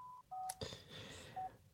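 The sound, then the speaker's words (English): A landline desk telephone rings with a short burst of electronic beeping tones, a few steady pitched pulses around a brief warbling trill, fairly quiet, with no voices. “As my phone rings.”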